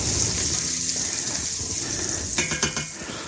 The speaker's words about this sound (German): Jetzt gieße ich einmal kurz mal mit einem Schlückchen Wasser an, damit sich der Satz vom, von dem Speck bisschen anlöst. Und das Ganze nicht zu dunkel wird.